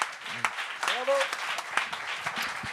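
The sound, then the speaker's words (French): An audience at a show applauds steadily for a performer on stage, a dense wash of many hands clapping at a fairly even loudness, while a voice speaks briefly over the start of it. “on peut l'applaudir.”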